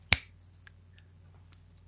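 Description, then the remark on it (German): One crisp, sharp finger snap rings out near the start, a bright click that fades quickly, followed by near-silence with only a few faint ticks and a low steady hum. “Und dann sagt er einfach so, schnipp,”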